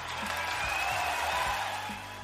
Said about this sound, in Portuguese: Uma salva de palmas. Uma salva de palmas.